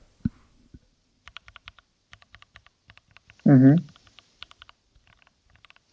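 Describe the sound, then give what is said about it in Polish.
Rapid, uneven clicks of keys as a password is typed on a computer keyboard, with a brief spoken murmur partway through and a short voiced sound near the start. “zauważ, że słuchający mogą od, odgadnąć twoje hasło tak, na podstawie po, Tak. Szczególnie e. jeśli jest im znana klawiatura, a dobrze wszyscy wiemy, jakich klawiatur używasz.”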